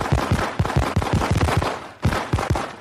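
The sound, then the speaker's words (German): Red and white fireworks, in SC Freiburg's colours, explode at the inauguration of the new Europa-Park Stadion in Freiburg, in a rapid, loud barrage of sharp bangs and crackles, dozens of bursts firing in quick succession with a brief pause before the volley resumes. “Mit einem Feuerwerk in Rot und Weiß, den Farben des SC Freiburg und einer Show des Europapark wurde das neue Europaparkstadion eingeweiht.”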